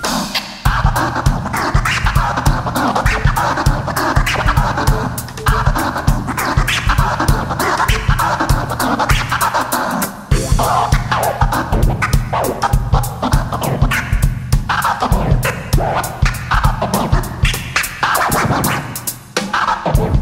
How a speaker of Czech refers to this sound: tomu jazzovému publiku Uh, představil DJ Tom Tablistu, který prostě ho doplňoval a znělo to tam asi nějak takhle